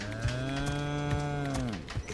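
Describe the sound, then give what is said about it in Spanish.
A cow moos once in a long, sustained low call that holds steady and then drops off near the end, loud with no talking. “Dentro vaca.”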